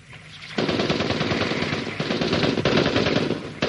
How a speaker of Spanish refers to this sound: De pronto, una ráfaga de disparos atraviesa tanto a la escultura como al hombre, que cae agonizante.